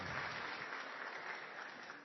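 An audience applauding, a steady dense wash of many hands clapping at once, sustained and even throughout with no talking over it.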